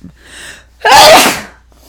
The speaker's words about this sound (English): I am so sorry. And I know that that was so loud. And I'm not even going to delete it from the podcast because if I do, then it'll be all choppy and weird. And we're just going to, you're going to like the sneeze, okay? You'll like it.